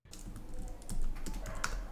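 Rapid typing on a computer keyboard that has separate page up, page down, home and end keys, with a steady stream of light clicking keystrokes over two seconds and no voices.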